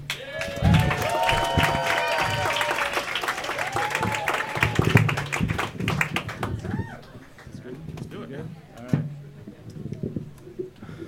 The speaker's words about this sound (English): You should applaud now.